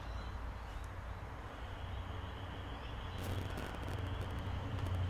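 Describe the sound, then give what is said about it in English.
A steady, low, continuous rumble of road traffic, with a faint hiss that swells slightly toward the end. No one speaks. “You might hear the traffic too.”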